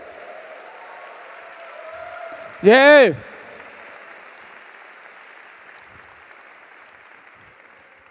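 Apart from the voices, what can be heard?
audience applauding loudly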